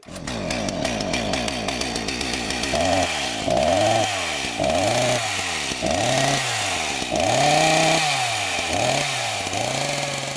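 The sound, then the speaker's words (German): A petrol chainsaw roars loudly, its engine revving up and bogging down repeatedly in rhythmic surges as it bites into wood. No one speaks. “So haben die Kettensägen bis jetzt tönt.”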